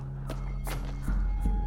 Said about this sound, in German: Kommen die Schritte näher?